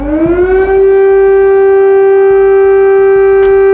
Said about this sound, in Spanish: Pues así con este sonido se despertó la ciudad de Kiev, toda Ucrania, el día 24 de febrero del año pasado. Mañana se cumple un año. Rusia por fin cumplió su amenaza de invadir el país y desde entonces esas alarmas, que deben ser terribles